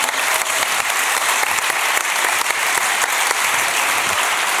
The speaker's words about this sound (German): Applaus. Alles Gute.